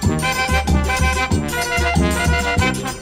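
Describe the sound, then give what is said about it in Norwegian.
A brief, loud three-second snippet of a song plays with steady rhythmic pulses and layered harmonic tones, a full band sound without any talking over it. “Den er den dere hører et lite klipp på tre sekunder fra nå.”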